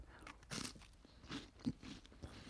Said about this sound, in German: das ist im Prinzip so Obladenwaffel. Ja. Ja, ist glaube ich mit Kakao auf der anderen Seite. Und wenn man da reinbeißt, ja.